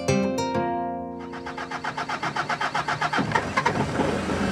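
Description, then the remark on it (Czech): The engine of a roughly three-tonne expedition off-road truck, loud, turns over and settles into a rough, pulsing run, its rhythmic chugging growing denser, as the truck is back in the terrain. A brief tonal whine comes first. No one speaks. “Náš expediční speciál je znovu v terénu.”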